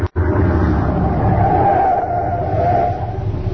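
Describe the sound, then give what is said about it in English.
A truck engine rumbles steadily and loudly as the vehicle drives up a rough dirt road, its low growl and rattling noise continuing without pause for several seconds. “Now, we leave the truck here.”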